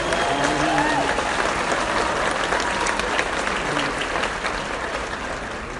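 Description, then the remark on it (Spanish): Steady, dense audience applause fills the whole clip, loud and continuous with countless overlapping claps, fading only slightly toward the end; faint voices and a few whoops rise within it. “Y el que no aplaude es porque no, no tiene conciencia.”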